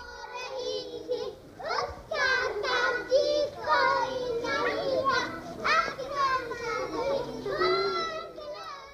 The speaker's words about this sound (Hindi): उनकी गलियों में कस कर चोटियाँ गूंदने वाली मलगजे लिबास वाली छोटी छोटी लड़कियों की आवाज़ें आज भी वैसे ही गूंज रही थीं जैसे पिछले बरस या पिछली सदी गूंजी होंगी